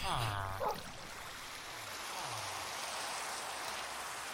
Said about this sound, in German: Oh, nee, jetzt regnet es auch noch.